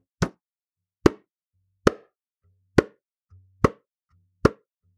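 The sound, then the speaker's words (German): A basketball being played with bounces steadily, six sharp, loud thuds at an even dribbling pace, with a faint low hum between some of the bounces and no voices. “Ein titschender Basketball, mit dem gespielt wird.”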